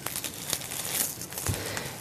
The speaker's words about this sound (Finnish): Tässä alkaa tunnelma nousta nyt kun liitetään vielä sitten tämä tekeminen tähän nuotion ympärille ja varmaan nämä paukut nuotiosta kantautuu sinne vastaanottimiin asti.